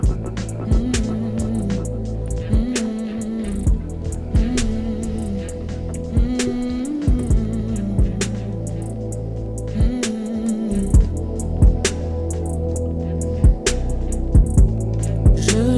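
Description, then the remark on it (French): A music track plays steadily for about sixteen seconds, with a sustained low bass line, layered melodic tones and regular percussive hits keeping a moderate rhythm at an even, fairly loud level. “on va mettre un morceau.”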